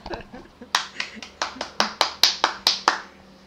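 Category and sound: crowd, applause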